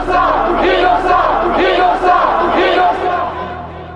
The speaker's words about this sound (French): Devant le palais de justice, une foule s'est réunie et scande Omar innocent